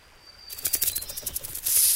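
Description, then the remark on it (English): A serpent hisses, first in a quick series of short, rhythmic hissing bursts, then in one long, louder sustained hiss at the end, with no talking. “Oh my, you are very unique. I will call you Serpent.”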